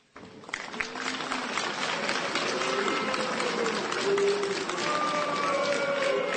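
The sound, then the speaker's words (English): A large crowd at an FDNY promotion ceremony boos loudly and continuously as Fire Commissioner Laura Kavanagh's name is announced, a dense wash of low jeering voices with scattered shouts and rising tones, sustained at full volume for several seconds after a sudden start. “They booed the fire commissioner.”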